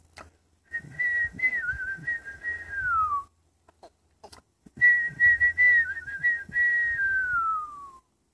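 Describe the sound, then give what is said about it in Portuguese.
A person whistles two long phrases imitating a bird singing, each a steady warbling tone that glides downward at the end, separated by a short pause. Clear, with no talking. “Ele caminhou para escutar o passarinho cantar. O assobio do passarinho, que cantava com alegria.”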